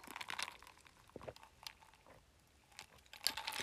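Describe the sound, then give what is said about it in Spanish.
Someone sips coffee from a cup, with a few soft wet slurps and small clicks and gulps spread over a few seconds. Quiet, no talking. “¿Les gusta cómo suena cuando le tomo?”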